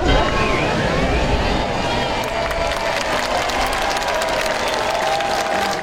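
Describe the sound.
A large crowd in Rome applauds Pope Francis appearing at the window of the Apostolic Palace, on his 10th anniversary as pope, in strong sun on a cold spring day; a dense wash of clapping mixed with cheering and murmuring voices holds at a constant, loud level throughout.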